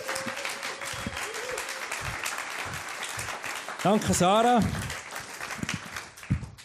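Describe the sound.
Audience applause fills the whole stretch as steady, dense clapping, with a voice speaking over it and briefly rising above it in the middle.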